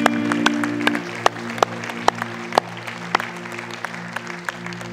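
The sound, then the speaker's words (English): An audience breaks into praise clapping for God one morning, a dense patter of many hands with sharper individual claps standing out, over a low sustained musical hum that fades near the end. “Let's just give him a praise clap this morning.”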